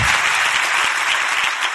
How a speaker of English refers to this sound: Clap on that if you're an unlikely candidate, too. Yeah, that's good.